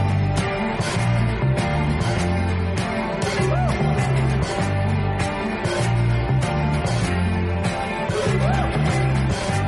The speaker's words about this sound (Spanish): es la historia de …, la cantan … y ….